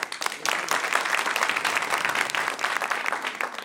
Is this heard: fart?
no